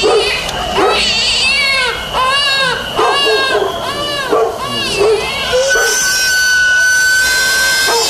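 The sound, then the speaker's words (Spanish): A baby, woken at night, cries loudly and continuously in a string of rising and falling wails; a steady high whistle from a sweet potato vendor's cart joins in toward the end. “Nos asusta y despierta al bebé y al perro.”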